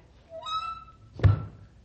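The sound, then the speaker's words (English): A door swings with a brief rising creak, then shuts with a single heavy thud that rings out briefly. No one speaks. “It works. Well, it closes anyway.”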